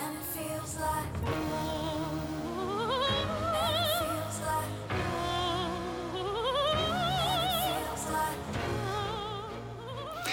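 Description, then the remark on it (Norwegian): A high coloratura soprano, the entry from Australia, sings an opera-pop song with rapid runs, wide leaps and vibrato-laden sustained notes, climbing to very high pitches over a steady, full pop-orchestral backing. “Hun synger altså hurtige løp og tonesprang med himmelhøye toner.”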